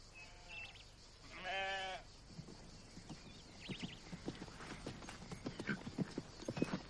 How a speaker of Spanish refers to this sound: Llega Juan a caballo.